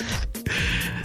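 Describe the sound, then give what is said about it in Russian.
One sneeze: a quick breathy intake, a brief pause, then a sharp, loud burst of air that fades into a steady hissy breath. “Будь здоров, они мне сразу отвечают.”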